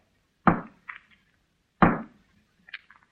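A hammer raps twice on a wall inside a house, two loud, sharp blows about a second and a half apart, each followed by a brief, faint rattling ring.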